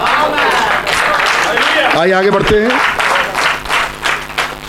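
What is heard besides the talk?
audience applause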